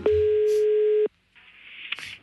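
telephone ringing tone

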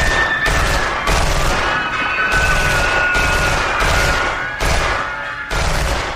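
automatic weapon gunfire

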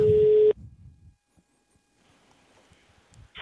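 telephone ringing tone

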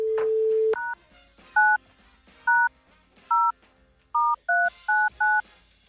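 telephone number being dialed

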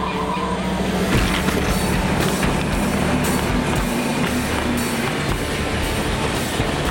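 train rushing past

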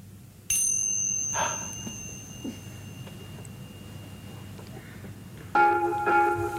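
small hand bell ringing

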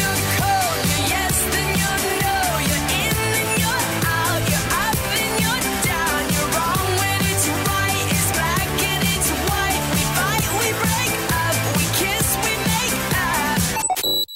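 pop song recording played

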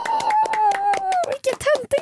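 cheering and clapping

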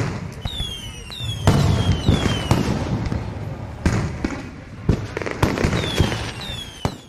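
fireworks exploding

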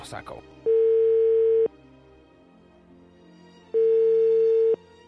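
telephone ringing tone

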